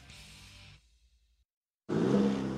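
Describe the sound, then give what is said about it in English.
The 2.7 liter high output turbo engine of a 2023 Chevy Silverado pickup truck revs, settles into a low idle rumble, goes briefly silent, then roars back loudly with a strong, sustained rev. “That's the sound of the 2023 Chevy Silverado's 2.7 liter high output turbo engine delivering 430 pounds per foot of torque with no compromised durability.”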